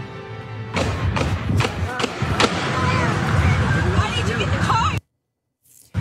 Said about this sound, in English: You, you hear uh, multiple rapid gunshots, you see people running for their lives.